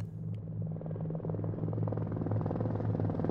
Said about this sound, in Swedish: Helikoptern seglar över bostadsområden och vägar.